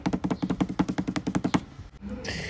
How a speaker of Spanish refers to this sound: Hubo un redoble de tambores